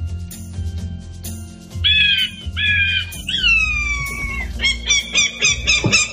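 Rufus, the 16-year-old falcon that guards Wimbledon and weighs just over 1.5 kg, calls with harsh, high-pitched screeches, first in short bursts, then a long descending cry, ending in a rapid run of shrill repeated notes over a low background rumble.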